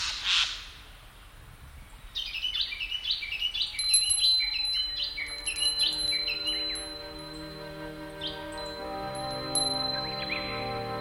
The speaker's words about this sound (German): Anbei die Vögel die nicht nach Süden ziehen.